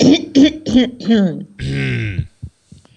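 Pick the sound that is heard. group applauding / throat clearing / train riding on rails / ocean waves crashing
throat clearing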